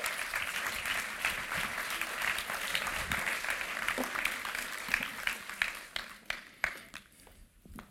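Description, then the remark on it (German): A crowd claps steadily, welcoming a guest onto the stage, in a dense wash of applause that thins out toward the end into scattered, individual claps before fading. “Tut sie doch mit einem herzlichen Applaus begrüßen.”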